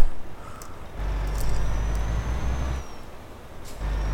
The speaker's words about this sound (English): Oh, the truck has slowed down significantly with this heavy load.